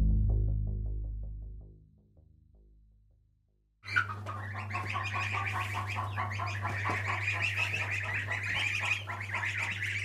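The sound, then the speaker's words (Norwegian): A crowd of young chicks and goslings, hatched by the keeper and now mostly feathered except the goslings, peeps continuously and shrilly over a steady low electrical hum, after a few seconds of low rumbling that fades out. “Nå er det ikke lenge til, så skal disse små kyllingene som jeg har klekka ut eh, Nå er de jo fjærbelagt eh, nesten alle, bortsett fra gjessene, da.”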